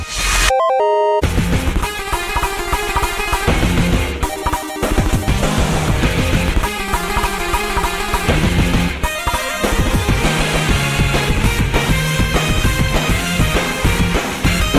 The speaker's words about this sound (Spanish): tema fuerte, con garra y con un toque muy, muy retro. Pertenece a la banda sonora de Scott Pilgrim contra el mundo